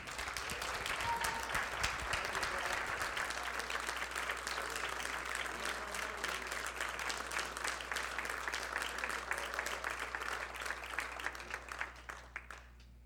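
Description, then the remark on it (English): A crowd applauds a speaker as he comes up, clapping steadily for about twelve seconds, a dense wash of many hands clapping at an even level before it thins and tapers off at the end. “So give him a nice round of applause as he come on up.”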